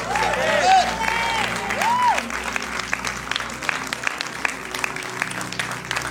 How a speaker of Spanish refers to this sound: ¿Alguien puede hacer ruido conmigo? Vamos, vamos. 30 segundos de ruido para Dios. Alguien que grite fuerte y diga, la vamos a romper.